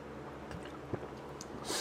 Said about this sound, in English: I am uh, sipping not the tea, but the seltzer.